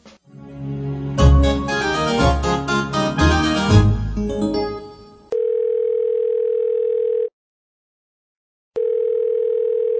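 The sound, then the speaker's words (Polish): A brief burst of lively music gives way to a steady, mid-pitched telephone dial tone for a phone call from America that hums for two seconds, cuts out briefly, then resumes. “Ja, bo ja na chwilę z tej Ameryki dzwonia.”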